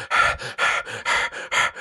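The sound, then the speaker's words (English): A voice imitates heavy, rapid panting after running: about seven quick, breathy huffs in a steady in-and-out rhythm, fairly loud, with no talking. “and the camera's like moving up and down and breathing.”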